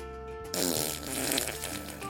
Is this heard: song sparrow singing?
no